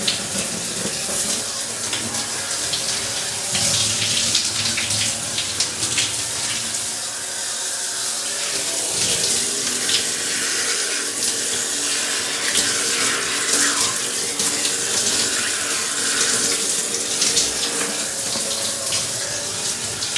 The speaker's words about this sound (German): Werden wir noch ein bisschen wärmer machen. Genau, so ist schön. Ja, ich dusche halt sehr gerne heiß.